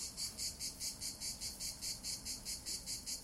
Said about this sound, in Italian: Sì, non è un effetto speciale. Sono proprio loro, le cicale.